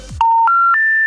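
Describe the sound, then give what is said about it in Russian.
A phone network error signal as a call drops, followed by a Russian announcement that the subscriber is temporarily unavailable: three steady electronic tones stepping upward in pitch, each held about a quarter second, clear and loud with no talking. “Алло, Влад, ты отвалился.”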